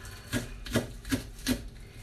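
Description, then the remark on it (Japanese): A spatula scrapes oil off a frying pan before washing, in four quick, evenly spaced strokes, each a soft, brushy rasp. The sound is fairly quiet, with no talking. “皿を洗う前とかフライパンを洗う前にこのヘラでこうちょっと油を落とすのにも使っています”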